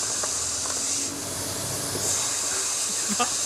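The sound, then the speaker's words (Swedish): Beef tenderloin sizzling in a pan: a steady, loud, bright hiss with scattered small crackles and pops throughout, with no one talking. “Det som fräste här var oxfilé.”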